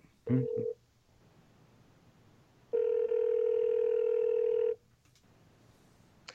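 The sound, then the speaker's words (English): A short burst of steady telephone tone, then a longer continuous dial tone lasting about two seconds, over a quiet background hum, as a phone call is placed to Neon Deuce Artist Management. “let's give him a call”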